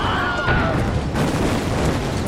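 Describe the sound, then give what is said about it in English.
Loud, rumbling explosions roll together into a continuous heavy roar, with a brief high whine sliding downward near the start, as a battlefield in the desert erupts with explosions. “The entire battlefield erupts with explosions and flying rebel bodies.”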